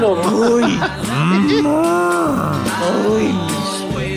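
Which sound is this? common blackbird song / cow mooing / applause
cow mooing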